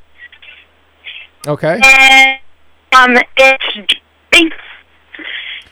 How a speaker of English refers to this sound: Okay, you're, and, you're, you're breaking. Um, excuse me, you're breaking up a little bit. Can you call back at a different on on a different line?